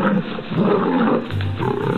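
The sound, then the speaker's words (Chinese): A lion roars loudly and continuously for about two seconds, a deep rumbling growl with a rough, gravelly texture that briefly dips and then surges again, sitting at the mouth of its cave in the morning. No one speaks. “第二天早晨，狮子坐在洞口，大声咆哮着，吼得地动山摇。”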